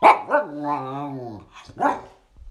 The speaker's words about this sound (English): I don't know what that means in dog language, but any all you dog whisperers out there, hit me up. Let me know what that just means.